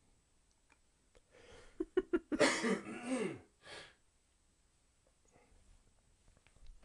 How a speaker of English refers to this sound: I have to cough again.